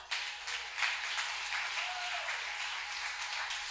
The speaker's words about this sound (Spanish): Es un aplauso al Señor.